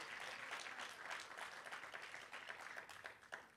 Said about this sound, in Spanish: Alguien le da un aplauso al Señor. Come on, dale un aplauso como si estuviera recibiendo esta palabra en esta mañana. You're receiving this word.